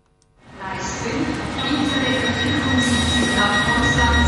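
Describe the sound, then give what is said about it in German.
A train arriving at Zürich station rolls in with a steady low rumble that swells in quickly, while loud, high metallic wheel squeals ring out above it, with no voices. “Jeden Tag kommen Leute aus der Ukraine mit dem Zug am Bahnhof Zürich an.”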